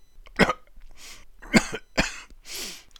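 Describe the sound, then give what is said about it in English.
Three short, fake coughs sound, sharp and deliberate, separated by breathy rasps and a heavy exhale at the end, with no talking. “Mom, kind of put that whimper in your voice, you know try to conjure up a tear in your eye, give a good couple coughs again.”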